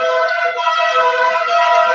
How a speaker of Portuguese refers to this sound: Passando um carro aí buzinando aí. Parece corpo bombeiro, mas não é. É, é, é o corpo de bombeiros. É o é, corpo, o corpo de bombeiro.